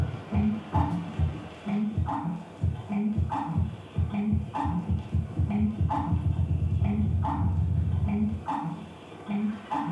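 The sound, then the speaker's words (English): A bird's wings beat the air in low, muffled thumps, slow at first and then quickening into a dull, continuous drumming roar. No voices. “Slowly at first, then faster and faster, he thumps the air, generating a dull, muffled roar.”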